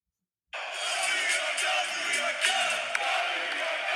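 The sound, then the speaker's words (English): A huge arena crowd at a Knicks basketball playoff game erupts in a sustained roar of cheering and yelling after a brief silence, loud and dense, with scattered whoops and a few sharp accents rising above the din. “I mean, hear what the what the crowd sounded like there if I've I've again never been to a Knick playoff game before.”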